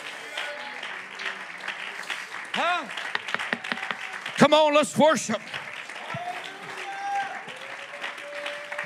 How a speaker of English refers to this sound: Come on, clap your hands in worship with me right now.